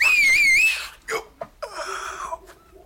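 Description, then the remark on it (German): A loud, piercing two-finger whistle with a slightly wavering pitch lasts under a second, then breaks off into a few short breathy vocal sounds and murmurs. “Sucht's euch gefälligst einen anderen Platz für eure Pfeiferei.”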